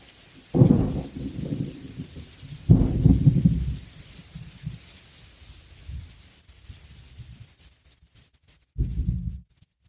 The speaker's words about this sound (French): Il pleut sans discontinuer. Je suis à la montagne, à côté du lac d'Annecy.